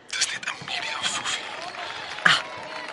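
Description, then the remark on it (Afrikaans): A crowd of people gathered outside a guesthouse to welcome a woman, their voices blending into a steady, indistinct babble with a few louder bursts and one sharp rise near the end. “Dis die hele skare mense hier buite die gastehuis wat gekom het om haar te verwelkom, jou ma se held.”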